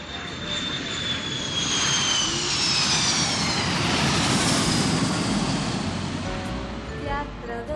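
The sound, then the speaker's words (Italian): A steady, loud airplane engine drone heard inside the aircraft cabin fills the whole stretch, a dense roar with a high whining tone that slowly shifts in pitch, unbroken from start to finish. “Non si può mai meditare in pace in questo aereo?”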